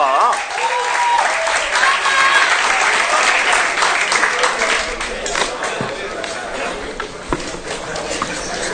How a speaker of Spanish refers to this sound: A ver, por favor. Un aplauso.